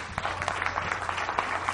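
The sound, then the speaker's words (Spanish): Loud, sustained applause from an audience, asked for a very loud round of applause for their diamond-rank leaders, a dense crackle of many hands clapping continuously at a steady level with no voices standing out. “Así que pido también un aplauso muy fuerte pues, a su diamante,”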